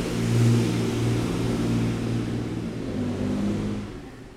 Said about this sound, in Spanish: No sé si escuchaste ese camión que acaba de pasar, pero ojalá le sirvan los frenos a ese señor.